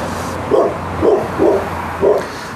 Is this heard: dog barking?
yes